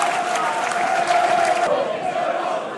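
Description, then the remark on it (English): A loud, steady roar from a large football crowd at a Southend versus Millwall match, broad wash of voices with a sustained chanting tone running through it, continuous throughout with brief swells of cheering. “Fantastic atmosphere, as you can hear, dear listener”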